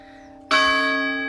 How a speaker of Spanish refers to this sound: Si alguien entiende el significado de estas campanas, me lo puede comentar